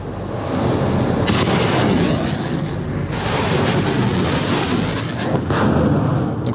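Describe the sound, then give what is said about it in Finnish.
A US-made HIMARS rocket launcher, whose munitions are GPS-guided, fires with a loud, sustained roaring whoosh that bursts in after a low rumble and keeps blasting to the end, surging again near the finish. No voices. “HIMARSit ovat yhdysvaltalaisia raketinheittimiä ja siis todella hienoja ja hyviä sellaisia, jos nyt aseista voi niin sanoa.”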